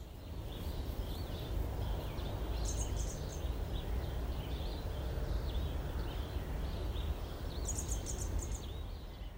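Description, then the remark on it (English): Several birds sing and chirp outdoors, with bright high trills breaking through twice amid scattered softer calls, all over a constant rushing background noise like wind or traffic. “And before I sign off, I'm just going to let you listen for a couple of minutes to the bird song.”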